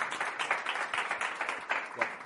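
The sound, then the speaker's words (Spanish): An audience at a comedy monologue claps steadily for a couple of seconds for a guest, a former police colleague of the performer. The applause is a dense patter of many hands with slight swells, moderately loud, with no talking over it. “Te ha llevado tu aplauso, eh, ya está.”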